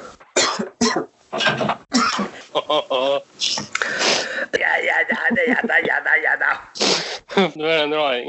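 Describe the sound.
A few harsh coughs from a tickle in the throat burst out in quick succession, then a person starts talking, with another rough cough-like burst breaking in near the end.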